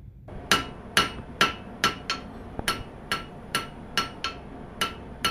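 hammering

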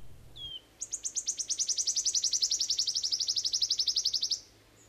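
wood warbler song

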